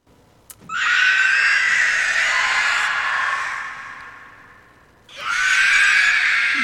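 A shrill, rasping Nazgûl shriek from The Lord of the Rings blares loudly for several seconds, fades, then a second piercing scream erupts, like a monstrous film sound effect. No talking.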